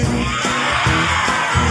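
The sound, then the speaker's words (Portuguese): Several voices imitate a lion's roar together, a loud, rough, sustained growling shout over a steady music backing, with short bursts repeating in a quick rhythm. “Ele fez leões que.”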